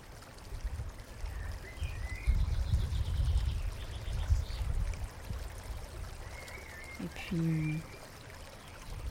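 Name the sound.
water lapping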